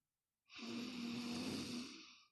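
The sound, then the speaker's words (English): A single long, deep breath drawn in during a breathing meditation, a steady airy rush lasting nearly two seconds with a faint low hum underneath, then easing off. “So you breathe in, I call it I am breathing. You breathe in.”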